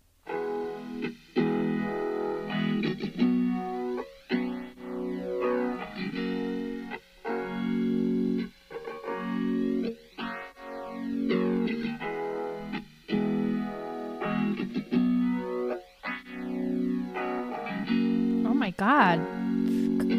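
A recorded rock song plays steadily for about twenty seconds, a sung vocal line carried over thick, effects-heavy distorted guitar, loud and continuous with brief dips between phrases.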